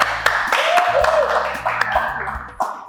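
applause

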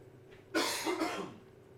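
coughing

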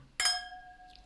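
wine glasses clinking

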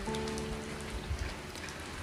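rain falling

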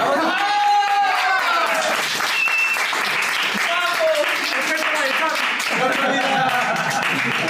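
applause

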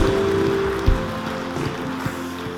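audience applause

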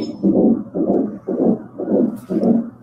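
heartbeat

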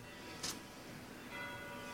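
church bell ringing

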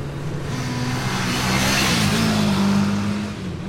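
motorcycle engine revving

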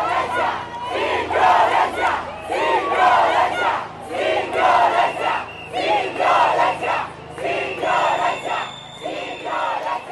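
large protest crowd chanting

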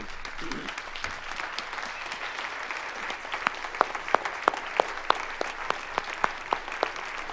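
round of applause

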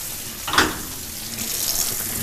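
warm water running

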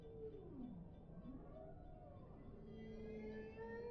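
humpback whale song

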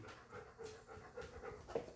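dog panting

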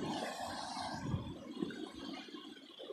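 ocean waves

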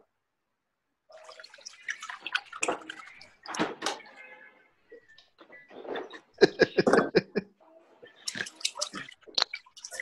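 running tap water

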